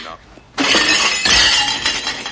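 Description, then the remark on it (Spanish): After a brief hush with faint voices, a waiter drops a tray of dishes on the floor in a sudden loud crash, followed by a second burst of shattering, clattering breakage that rings on for a couple of seconds. “Dentro de cinco segundos el camarero va a tirar una bandeja de platos.”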